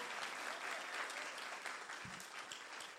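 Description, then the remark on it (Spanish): An audience applauds steadily, a dense wash of many hands clapping at a constant level throughout with no pauses, and no voices standing out. “¿Cuántos, le pueden dar un aplauso fuerte?”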